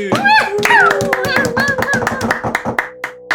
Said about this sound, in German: Ja, wir warten mit einem riesen Applaus